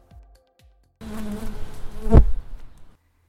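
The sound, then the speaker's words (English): A dense, droning buzz of many honeybees from a rooftop beehive being rescued and relocated in the Roma neighborhood of Mexico City swarms in abruptly after a couple of soft low thumps, swells to a loud pass, then fades out near the end. “In the first part of the episode, we're going to follow a rescuing operation of a beehive that has to be relocated in order to be preserved.”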